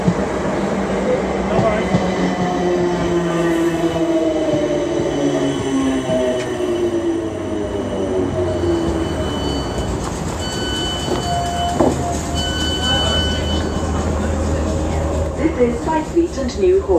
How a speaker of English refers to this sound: This train is for London Waterloo. The next station is Weybridge. Hi, listeners. We're on the train, and uh, yes, we're we're all here.